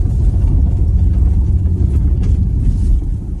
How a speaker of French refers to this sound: Alors si vous entendez un bref zonement à l'intérieur de la voiture, c'est pas à cause de la voiture, euh, c'est pas le moteur, c'est le chauffage, parce que j'ai dû mettre la, la ventilation.